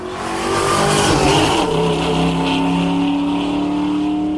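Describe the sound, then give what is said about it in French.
A loud, raw car engine with its headers disconnected, so the exhaust system under the car is bypassed, revs up and back down, then settles into a steady, throaty rumble, with no talking. “Quand on déconnecte ces headers, ça veut dire qu'on débranche tout le système d'échappement qui passe sous la voiture”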